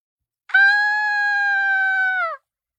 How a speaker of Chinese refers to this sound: 远处一声女子的尖叫声传了过来，紧接着就听着人喊道：“抢包啦！有人抢我的 LV 啊！有人抢包啦！”